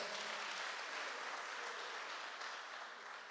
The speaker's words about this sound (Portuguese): Quem está comigo aqui, no nome de Jesus, uma salva de palmas para Jesus, que Jesus merece.